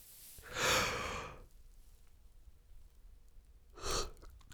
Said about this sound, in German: Gähnen, offensichtlich, ah, wie bei mir gerade. Hm. Tränen, Gähnen, Schütteln, das ist alles Heilung.